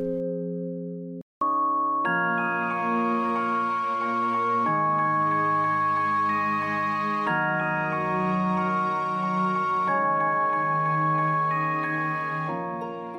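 A music box plays a pop melody in steady, plinking notes with sustained harmonic tones beneath, continuous and even in loudness for about thirteen seconds, with no voices.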